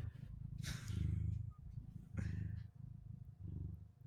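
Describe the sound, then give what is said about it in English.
A male cat purrs steadily, a low rumbling vibration pulsing in rhythmic waves with soft breathy rasps on each breath, continuing throughout without any talking. “cats are not dogs”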